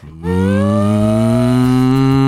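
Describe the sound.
A cow lets out one long, loud moo, a steady low drone that starts after a brief pause and holds for about two seconds without wavering.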